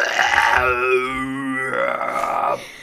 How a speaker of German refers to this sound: sagte … noch, stopp, stopp, stopp, ich muss rülpsen, ich muss rülpsen. Und dann kam...